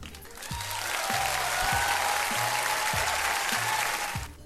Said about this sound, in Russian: Ой, тут должны быть аплодисменты. Сейчас будут аплодисменты.